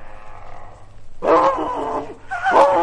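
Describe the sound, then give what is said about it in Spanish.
A wolf growls low and quietly, then lets out two loud roars, the first drawn out and the second shorter, with only a brief pause between them. “¡Ay, Dios mío! es el lobo!”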